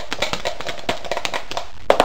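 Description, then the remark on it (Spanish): Two dice, rolled to pick a focus and a topic, rattle and tumble in a quick, irregular run of small clattering clicks, ending with two sharper knocks as they come to rest. No one speaks. “Pues vamos con nuestro primer eh, enfoque, a ver qué nos dicen los dados.”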